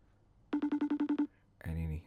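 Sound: phone call ringback tone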